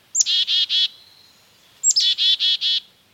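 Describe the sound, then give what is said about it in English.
Calls from a couple of black-capped chickadees darting into a yard with a suet feeder on a chilly morning: two clear bursts, each a thin high note followed by three or four harsh, buzzy notes in quick succession, fairly loud against a quiet background. “Now, a couple of energetic black capped chickadees dart in.”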